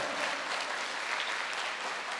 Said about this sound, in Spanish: ¿Cuántos necesitan un milagro? Vamos a colocarnos en pie y dele fuerte ese aplauso al Señor. Fuerte ese aplauso al Señor.